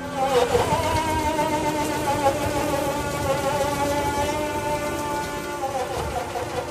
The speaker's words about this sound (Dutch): Het geluid wat je hier hoort is de hydrauliekpomp van de eerste versie van de multitool truck. Een vervelend en overheersend geluid.